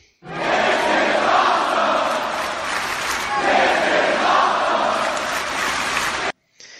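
A large arena crowd at a wrestling show in Saudi Arabia chants a loud, sustained shout in unison, the roar swelling in two long waves before cutting off abruptly, followed by a brief faint tail.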